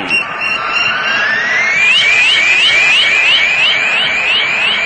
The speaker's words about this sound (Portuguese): Você está ouvindo o toque eletrônico da sua Rádio Globo